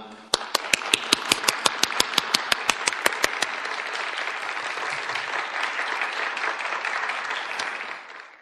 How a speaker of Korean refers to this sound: 우리 원로 목사님 나오셔서 귀한 말씀 전해 주실 텐데 나오실 때 우리 뜨거운 박수로 환영하기를 원합니다.